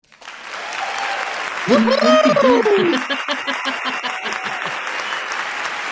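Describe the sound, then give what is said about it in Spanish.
A big crowd applause sound effect: loud, steady applause from a large crowd, a dense wash of clapping that runs throughout, with a rising and falling cheer or whoop cutting through in the middle. “Tiene que ser un aplauso, pero grande enorme de multitud.”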